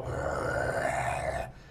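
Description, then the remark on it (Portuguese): A voice imitates a loud snore, one sustained, rasping rumble lasting about a second and a half, heavy like an idling engine, likened to an 1113 truck inside a bedroom, then cutting off abruptly. “era um ronco, meu irmão. parecia um 11 13 dentro do quarto.”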